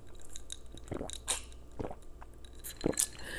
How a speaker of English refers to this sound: So when I came back, excuse me, I'm taking a sip of lemonade at 1525 into this.